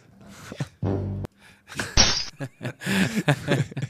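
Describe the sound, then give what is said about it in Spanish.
A glass door at a small shop shatters as a man walks through it, believing it was open: a heavy low thud, then a short, sharp crash of thin breaking glass midway, followed by scattered knocks and rustling movement. “Pero era de celofán el vidrio. Sí, se sí, rompió con una facilidad.”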